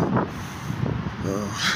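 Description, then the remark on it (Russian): Strong wind buffets the microphone, a steady low roaring rumble that fills the whole short stretch, with a brief voice sound poking through near the end. “ой, как сильный ветер, какой у нас, ой, какой ветер, не знаю даже, что там вы услышите.”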